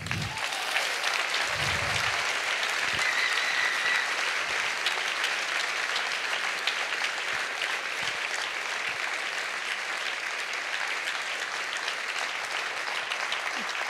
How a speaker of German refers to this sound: Und auch wenn du Spotlight hast und Applaus hast, kriegst du jetzt einen Applaus von uns.